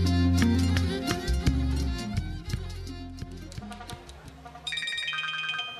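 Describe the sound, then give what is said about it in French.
A phone rings with a loud, melodic ringtone: a bright repeating tune over a steady bass line, playing alone for several seconds with no voices. “Madame Berry achète justement l'un de ces journaux lorsque son téléphone se met à sonner”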